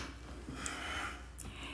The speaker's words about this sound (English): … stifles a yawn before continuing.